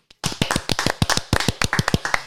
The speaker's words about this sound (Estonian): Mati Koorep, Eesti absoluutselt legendaarseim võrkpallikohtunik, seitsekümmend viis. palju õnne, teeme aplausi